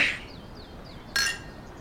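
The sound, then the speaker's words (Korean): Freshly opened beer cans knock together in a toast, a short bright metallic clink, followed about a second later by another brief, sharp burst of sound in an otherwise quiet setting. “일단 따서 건배.”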